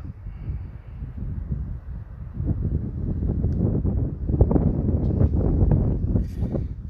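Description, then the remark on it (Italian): Steady low rumbling wind buffeting a microphone, with gusty bursts that swell louder in the second half and irregular crackly thumps, no voices present. “sentirà un po' il vento sotto”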